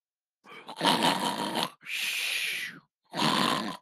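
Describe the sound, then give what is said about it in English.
A person imitates snoring with three loud bursts: a rough, rattling inhale, a breathy hissing exhale, then another raspy snore, with brief pauses between them. “snore. I am snoring.”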